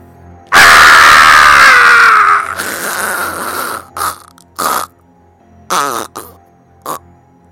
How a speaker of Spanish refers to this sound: agentes de infanterías, al ver a su oficial caído, pegaron el grito de guerra. Mientras el camperón azul juntaba los dientes del piso, el mismo grito de guerra.